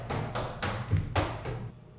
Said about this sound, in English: those footsteps you hear